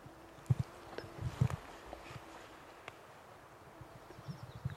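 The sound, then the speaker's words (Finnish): Dry branches snap underfoot in a small forest clearing in a light breeze, a handful of sharp, irregular cracks over soft rustling, with a quiet outdoor hush and a faint bird now and then. “Nyt paukkuu. Paukkuu, paukkuu oksat, mutta ei näy vielä seuraavaa”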